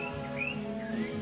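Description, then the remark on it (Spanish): A small caged pet bird chirps, giving a few short rising tweets over a steady low hum, with no one speaking. “¿Sí o no, pajarito? No le he puesto nombre.”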